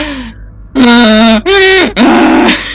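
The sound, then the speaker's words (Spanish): A voice imitates a donkey's bray: three loud, strained, harmonic honks in quick succession, each rising and falling in pitch, with a short breathy sound before them. “Ay, no, güey, un burro, güey. es un burro.”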